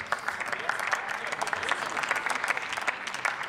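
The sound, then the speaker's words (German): Sustained applause from a crowd in parliament, many hands clapping densely and steadily for a few seconds at moderate volume, with a faint murmur of voices underneath. “Aber, ja, da kann man ruhig klatschen, das stimmt.”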